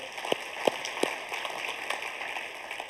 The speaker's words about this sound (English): Yeah, you can clap for that. Hope you're clapping for Him.